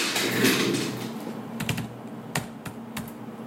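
Sharp, irregular clicks of keys being pressed on a laptop keyboard, close up, over a low steady hum, with a brief noisy swell at the start and no voices.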